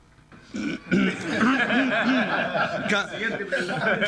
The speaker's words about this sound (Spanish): carraspeo.